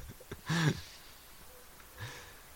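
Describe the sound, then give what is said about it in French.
A chicken passing by clucks, one loud, short call followed a moment later by a softer second cluck against quiet background noise, with no one talking. “qu'est-ce que qu'est-ce que la poule là qui est en train de passer à dire euh”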